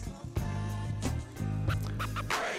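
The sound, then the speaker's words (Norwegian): A DJ rewind effect in a rap track: record scratching with quick back-and-forth sweeps over a steady bass-heavy beat, several bright rapid scrapes rising and falling across about two seconds. “ta den tilbake, ta den tilbake. To sekunder. To sekunder, to sekunder, to sekunder. Rewind.”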